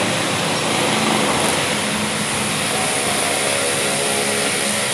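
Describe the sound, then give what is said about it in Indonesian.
A truck rumbles past with a loud, steady roar of engine and road noise that holds for the whole five seconds. A low droning hum runs underneath, and no one speaks. “Bentar kok truk gue lewat lagi.”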